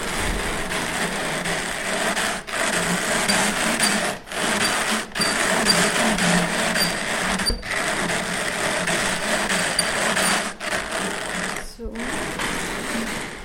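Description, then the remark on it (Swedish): Wool being fed in at one end of a drum carder, a device with two rollers, a crank and a belt, makes a steady, dense mechanical whir and rattle that runs throughout, with a handful of brief sharp dropouts breaking the otherwise continuous noise. “Och så matar du helt enkelt på ull i ena änden. Och sen går det igenom här”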